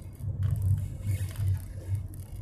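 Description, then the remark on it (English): A steady low rumble of a car rolling at about 21 miles an hour behind a horse trailer and a truck on a wide, straight road, heard from inside with constant engine and tire drone and faint rustling, no voices. “I'm behind a horse trailer and a truck that are literally going 21 miles an hour, which is ridiculous because this road is wide and has plenty of space, and it's pretty much straight, so I don't know why they're going so slow.”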